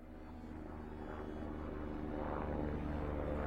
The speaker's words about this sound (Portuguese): Ele ouviu um helicóptero e rapidamente acendeu seu sinalizador. O helicóptero estava tão baixo que Mauro conseguiu ver até o capacete de um dos tripulantes.